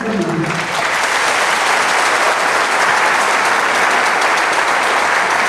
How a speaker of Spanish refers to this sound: Así que yo quiero que ustedes con un fuerte aplauso me reciban a mí